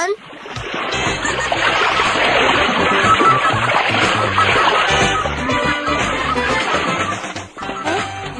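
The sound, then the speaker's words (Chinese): Three dolphins at a natural history museum leap through a rope hoop and splash, a steady, loud wash of churning water and spray that continues for several seconds, with a murmur of indistinct voices underneath. “三只海豚跳过绳圈了耶！”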